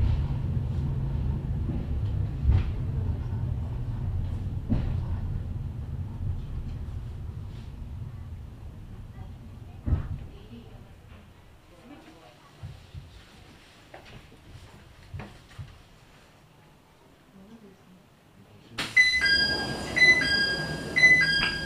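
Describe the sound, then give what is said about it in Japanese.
A cable car bound for Gōra, arriving at Kōen-kami station, rumbles along its track with a low, steady drone and occasional sharp clunks, growing quieter until a bright, high electronic chime melody rings out near the end. “このケーブルカーは山寺に強羅行きのケーブルカーでございます。”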